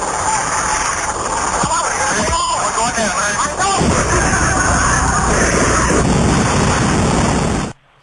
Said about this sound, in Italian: gli ultimi secondi le, della registrazione del cockpit, quindi della cabina di pilotaggio dell'aereo prima dell'esplosione in volo.